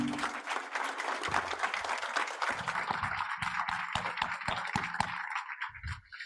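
An audience applauds steadily at the end of a session, thanking two guests for coming: a dense wash of many hands clapping that thins toward the end into scattered individual claps, with no one speaking.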